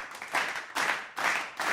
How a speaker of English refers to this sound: Because I would just be like, dude, play the applause noise.